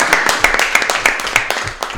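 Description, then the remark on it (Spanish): A crowd applauding, with many overlapping claps forming a dense, steady patter that holds at a fairly loud level for about two seconds. “un aplauso aquí.”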